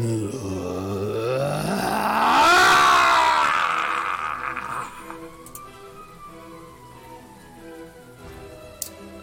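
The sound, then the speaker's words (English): A human voice imitates an eerie shriek and wail, a sound from the depths of the ocean made by Poseidon, an anglerfish-like creature. It rises into a loud, strained cry around the middle, then slides down into a long, fading moan, with no words spoken. “jagged, pointy, sharp, needle like, rows upon rows with this dripping ichor just opens, and out of his mouth, you hear a shriek, a wail, a sound that could only come from the depths of the ocean as Poseidon goes.”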